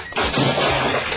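A loud, sudden crash as Robin trips and falls onto a cuckoo clock, with a burst of breaking and shattering noise that clatters on for about a second without any talking.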